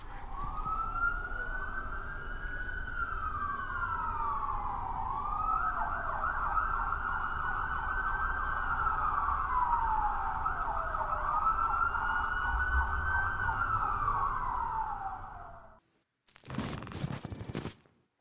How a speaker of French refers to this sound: Ils arrivent à le réveiller, et ils fuient tous les trois au son des sirènes de police.